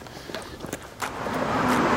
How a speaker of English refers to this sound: bus coming.